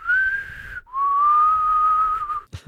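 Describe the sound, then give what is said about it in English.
A person whistles a short two-note tune imitating Negan's whistle, loud: a gently rising first note, a quick break, then a longer held tone, ending in a brief burst of noise. “As long as we get the whistle, the Negan whistle.”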